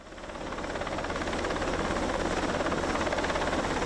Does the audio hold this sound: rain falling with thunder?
no